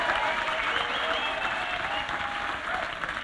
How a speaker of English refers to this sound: Can we give another big round of applause, please, for Dr. Rupert Sheldrake?